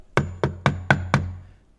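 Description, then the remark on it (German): Five firm knocks on a wooden door in a quick, steady rhythm, clear, each with a short hollow ring before the sound fades. “Ich hab an die Tür geklopft und die Witwen haben aufgemacht.”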